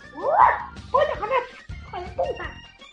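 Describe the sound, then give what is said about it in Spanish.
A dog yips and barks in three quick clusters of high, whiny calls, the pitch sliding up and down, with a low hum underneath. “Todos problemas de perros.”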